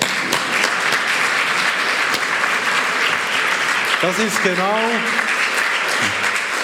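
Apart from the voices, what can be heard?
audience applause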